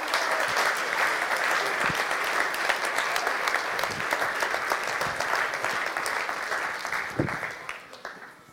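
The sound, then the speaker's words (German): A large audience claps steadily and loudly for several seconds, a dense sustained wash of applause that begins to thin out and fade toward the end. “Gebt doch einen riesen Applaus”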